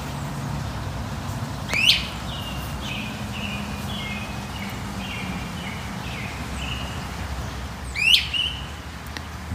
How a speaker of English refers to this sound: That is a bird that's not around very much. It's a great crested flycatcher. Thanks to the Merlin app, I know what it is. I've got two of them in my yard right now.